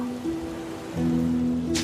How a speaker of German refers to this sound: Ich schüttel mal so, man hört dann Wasser. Ja, man hört Wasser